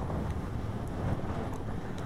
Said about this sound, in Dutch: Het waait vannacht. In de stad lijkt de wind van om de hoek te komen. Hier hoor je de heuvels, de bergen, de verte. Mijn huis kraakt.